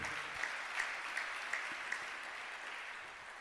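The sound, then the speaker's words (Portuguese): An audience applauds, a steady crackling wash of many clapping hands with a few sharper claps standing out at a regular beat, fairly even in loudness throughout. “Pode aplaudir porque ele é santo, ele é bom.”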